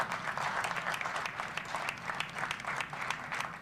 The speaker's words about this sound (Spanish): Enfrente a todos, todos aplaudiendo, aplicando su America First. Firmando el decreto para que la vacuna no llegue a ningún otro país.